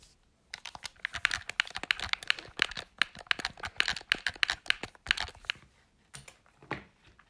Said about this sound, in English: Jetzt drücke ich auf meinen Pro Controller herum.